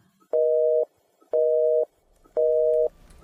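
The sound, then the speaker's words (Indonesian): A telephone busy tone after a call is hung up: three steady, even-pitched beeps, each about half a second long with equal gaps between them, heard clearly and alone on the line. “Setelah menutup telepon”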